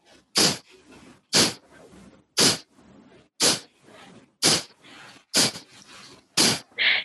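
Seven sharp, forceful exhalations through the nose during a breathing exercise, evenly spaced about one per second, with the sound made at the tip of the nose. Each is a loud, breathy puff with softer breathing sounds between them. No talking.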